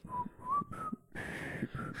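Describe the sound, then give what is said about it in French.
Someone whistles a light, casual tune, a few short wavering phrases rising and falling with small gaps between them, no talking. “Là, tu dans, dans, une salle et t'as Astérix et Obélix en train de, en train de siffloter dans la, dans la forêt, en train de marcher.”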